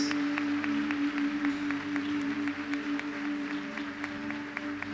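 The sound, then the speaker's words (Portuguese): A church audience applauds to the Lord for decisions just made, in a steady, dense wash of clapping that carries on for several seconds, with a sustained low musical tone holding underneath. “Vamos aplaudir ao Senhor, igreja, por esses, essas decisões tão importantes.”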